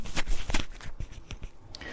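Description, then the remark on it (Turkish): Irregular bumps and scrapes of a microphone being handled and adjusted, with several sharp thuds and rustling crackles over about two seconds. “Ama mikrofonumu kontrol edeyim de bazen yutkunma sesini bile alacak şekilde patlıyor. Pardon şöyle bir düzeltelim.”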